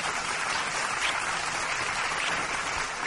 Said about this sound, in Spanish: Mira, hasta aplauso te tocó.